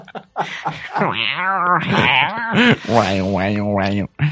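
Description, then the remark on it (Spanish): A person vocalizes a drawn-out, wavering yowl that rises and falls in pitch, mimicking a cat in heat, loud, with a brief break near the end. “Que no siga repitiéndolo, es que por más que lo por más que me hagas eso, tío, me pareces un puto gato.”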